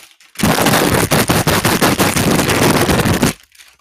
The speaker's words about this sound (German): Oder hier so eine Tüte. Klingt das ganz gut. Ich habe auch noch so eine andere Tüte. Die klingt auch ganz cool.